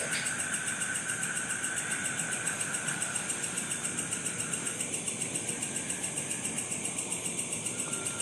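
A car engine idles steadily with a rapid, even pulsing chug and a faint high whine over it, running continuously with no voices.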